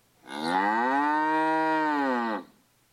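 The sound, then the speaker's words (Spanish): A single long, loud cow moo, holding a steady low bellowing tone for about two seconds before cutting off, with no other sounds around it. It is the cow Vaca Paca answering in a children's story. “buscaron a la vaca paca, que no era muy flaca, y le dijeron, si te quieres divertir, con nosotros debes venir. La vaca paca contestó.”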